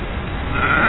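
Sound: goat bleating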